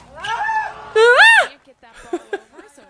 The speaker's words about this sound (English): Nothing ah! like an involuntary squeal.